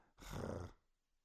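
A single loud, harsh cat meow lasting about half a second, drawn out like a yowl before it cuts off into quiet.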